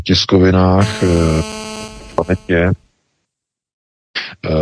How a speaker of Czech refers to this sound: tam byl nějaký zvuk. Pořádku, jako to byl jen telefon To byl telefon, to tam zvučí telefon občas.